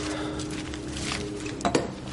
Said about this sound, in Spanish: El camarero le sirve la copa.